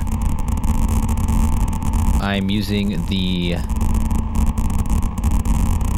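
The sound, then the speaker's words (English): Two brief bursts of pitched, resonant modular synth tones, random triggers from a Pico RND sent through a Zlob VCF3DB filter and into a Mimeophon for delay and reverb, with sweeping filtered overtones and echoing repeats, stand out over a steady low rumble while a man talks. “This is the random trigger out from the Pico RND, going into the Zlob VCF3DB, and then into the Mimeophon for some delay slash reverb.”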